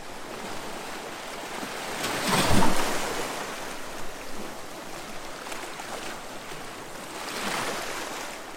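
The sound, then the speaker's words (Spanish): Ocean waves break on the shore, a loud surge crashing around the middle and a softer one near the end, over a steady wash of hissing surf and light wind. “Eh, cómo va rompiendo las olas en la orilla y se está yendo de nuevo el agua hacia atrás, me encanta.”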